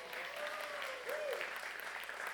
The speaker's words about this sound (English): Yeah, you can clap for my wife's birthday if you want. It's, it's her birthday in a couple days.